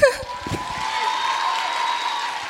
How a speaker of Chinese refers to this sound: 希望大家可以给我一点掌声鼓励。